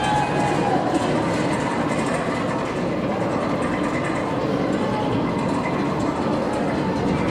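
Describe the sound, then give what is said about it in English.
A steady, loud mechanical clatter of a roller coaster chain lift, with rapid rhythmic clacking over a continuous rumbling roar that holds constant throughout. “Cash cranking, it needs to be loud.”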